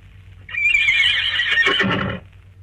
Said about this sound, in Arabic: الله ده حصان بجد الحصان ده إيه الله على شط البحر فرس واقفة فرس وحشية دي ولا ايه يا سلام اما حتة فرس الله الله الله دي مربوطة الفرس مربوطة